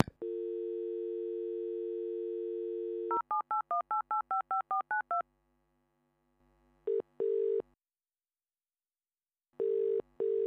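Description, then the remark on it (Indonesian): Someone places a phone call to a friend: a steady dial tone gives way to a quick run of about ten touch-tone beeps, then after a pause come short bursts of ringback tone, two paired pulses and another near the end. “Sekarang gue mau ngajak ngobrol teman gue Vira yang juga udah berkunjung ke museum ini ya. Kita telepon yuk.”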